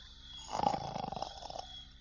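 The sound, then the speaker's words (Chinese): A single rough, rattling snore from a man asleep on a bed in a home, lasting about a second, a low raspy rumble with a buzzing, pulsing texture, rising and fading on its own with no talking. “他竟然在我家睡了起来，还。打了呼噜”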